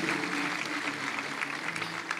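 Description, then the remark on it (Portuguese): A church audience applauds Jesus steadily, a dense, continuous wash of clapping from many hands at an even, fairly loud level with no voices standing out. “Se você crê, aplauda Jesus bem forte.”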